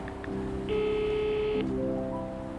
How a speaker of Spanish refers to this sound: Cojo el teléfono y llamo a mami.